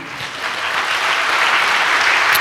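An audience claps steadily, a dense wash of many hands that holds at a fairly loud level and swells slightly toward the end, with no talking over it, applauding God during a Spanish-language Christian sermon.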